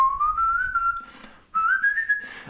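A melody from a well-known rock ballad, whistled in two clear, sustained phrases, each pitch sliding slowly upward with a short pause between them, alone with no talking.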